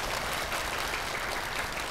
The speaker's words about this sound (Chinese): 那么当然了，我们要还有很多啊，这个护法义工啊，来照顾我们啊，让我们安心在这边做三十七年，我们掌声感谢他们。